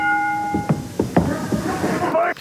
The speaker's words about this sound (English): Okay, so for our listening audience, just so they can see what's going on. So a uh, bell has been rung. You heard that,